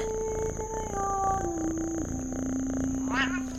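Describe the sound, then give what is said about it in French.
An old tomcat on the road to Marathon meows in one long, drawn-out call that slowly slides lower in pitch, fairly loud, with a faint steady hiss in the background and no talking. “Excepté un chat qui se dandine sur la route de marathon. Le vieux matou prend le frais.”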